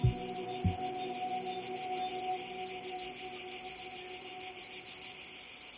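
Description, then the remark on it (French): A cicada sings in a loud, continuous shrill buzz that holds steady for the whole stretch, with a couple of brief low knocks near the beginning. “Toi, cigale, tu as une ressource pour la soif, dans l'écorce tendre et juteuse d'un rameau.”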